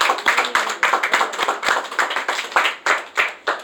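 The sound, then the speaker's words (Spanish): A church audience applauds the Lord at an evening service with steady, rhythmic clapping, about three claps per second, fairly loud with no voices over it. “¿Puede darle un aplauso al Señor, por favor, esta noche?”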